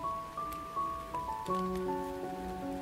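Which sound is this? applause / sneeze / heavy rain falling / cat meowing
heavy rain falling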